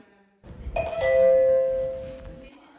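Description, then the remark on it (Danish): A doorbell at a counseling center's entrance rings once with a sustained electronic chime tone, clear, ringing out for about two seconds before cutting off, with faint background noise underneath. “Det er, når der bliver ringet på, så der altid kan komme en rådgiver ud og tage imod.”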